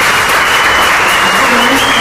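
Loud, dense applause from a crowd of scientists, children, women and other people present, given to celebrate someone's first recording: a steady wash of many hands clapping at once with no distinct individual claps, sustained evenly throughout.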